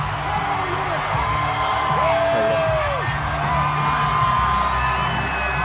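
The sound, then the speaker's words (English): A loud, dense arena crowd roars continuously as Governor Ron DeSantis is welcomed to the stage at a fundraiser for Florida, with rising whoops and yells cutting through the wall of cheering for the whole stretch. “Crowd going nuts.”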